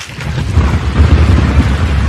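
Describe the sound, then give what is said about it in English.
A low, continuous rumble of thunder rolls through the whole stretch, deep and steady with slight swells, with no voices over it. “Uh, yeah, a little thunder in the background.”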